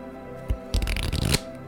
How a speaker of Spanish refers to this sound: Bueno, tengo que barajar primero las cartas.